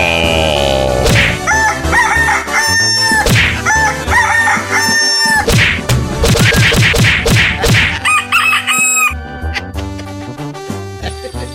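Several roosters crow loudly and repeatedly, their harsh overlapping calls filling a busy, crowded space with some clucking and knocking sounds mixed in, at the Palenque del Trueno cockfighting arena, where the birds are trained.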